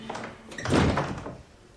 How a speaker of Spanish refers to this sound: Magda abre la puerta.